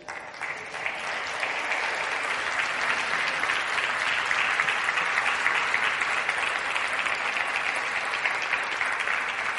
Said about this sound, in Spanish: Dile un aplauso al Señor.